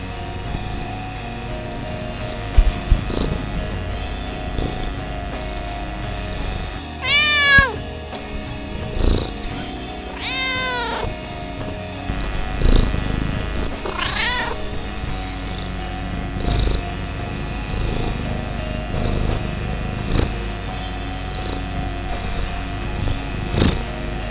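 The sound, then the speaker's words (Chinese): A house cat lets out three drawn-out, wavering meows spaced a few seconds apart, over a steady low purring rumble that runs throughout. No one speaks. “然后我家的猫似乎它也有同感，所以它前面喵了几下。”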